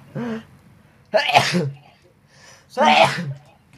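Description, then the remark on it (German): Two loud sneezes about a second and a half apart, each a sharp breathy burst, preceded by a brief voiced intake of breath. “Gesundheit. Danke.”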